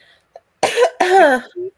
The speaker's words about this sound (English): I'm gonna take care of this cough.